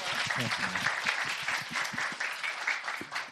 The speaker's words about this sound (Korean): 박수 한번 부탁드릴게요.